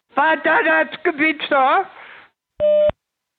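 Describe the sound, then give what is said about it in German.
A German telephone speaking clock: a voice announces the time over the line in German, then after a short pause a single steady electronic beep marks the time signal. “Beim nächsten Ton ist es 15 Uhr 10”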